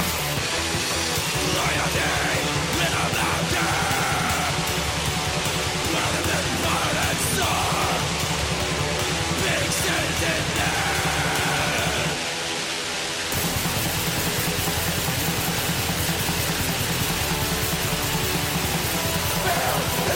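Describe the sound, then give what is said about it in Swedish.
Dense, distorted heavy metal with harsh, angry shouted male vocals over a wall of guitars and pounding drums, loud and constant, broken by a brief drop-out near the middle before the full band crashes back in. “Eh, lite oväntad sång. De hade väl lite väsigare sång förut va? Lite mer det här. Nu, nu är det mest en, en, en arg snubbe.”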